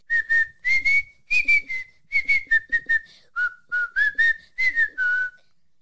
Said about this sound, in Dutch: We gaan even nog een keer luisteren naar de schitterende fluittoon